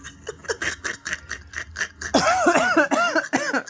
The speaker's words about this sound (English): I'm coughing. Don't laugh.